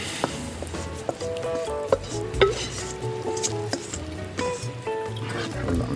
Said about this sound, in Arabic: هلا بهرنا بدنا نحط صلصة البندورة يا عيني يا عيني يا عيني هاي بندورة بومودورو